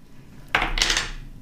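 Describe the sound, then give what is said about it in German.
Dice being rolled clatter across a hard tabletop: a sharp first impact, then a quick tumble of rattling knocks that fade within a second. Moderately loud, with no one speaking. “Sollen wir würfeln? Mhm. Wir müssen mhm. würfeln.”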